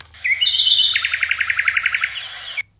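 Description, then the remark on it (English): A short bird call plays on its own: a couple of high chirps, then a quick run of about a dozen evenly spaced tweets, ending abruptly after under three seconds. “Uh, Patrick Keen's tweets of the week.”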